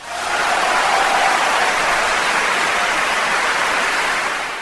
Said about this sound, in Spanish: Y el público, ignorando la tragedia, aplaude frenético. Pero ese aplauso es para ella como un repique funerario, como una voz que repite insistentemente, para mayores cosas has nacido, Lavalier, para mayores cosas.